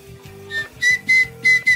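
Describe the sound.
A person whistles a series of short, shrill, high-pitched bursts, about four or five in quick succession, loud, with a low steady hum underneath and no talking.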